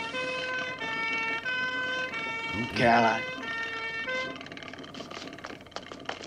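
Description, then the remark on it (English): An ambulance siren wails steadily throughout, fairly loud, as it arrives at a car crash, while a voice briefly cries out partway through. “Ambulance got there very quick.”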